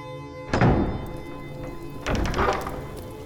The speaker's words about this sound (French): Ne restez pas comme ça sous la pluie. Entrez.